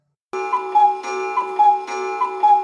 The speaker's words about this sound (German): kannst du mal kurz auf den Alarm drücken? Oh, ja, auf den Erich von Däniken-Alarm